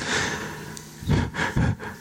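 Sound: heavy breathing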